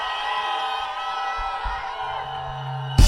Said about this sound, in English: Quand je dis 1, 2, 3, vous dites martini. 1, 2, 3. On va refaire ça. On y va. 1, 2, 3. Faites un maximum de bruit pour Martini, s'il vous plaît.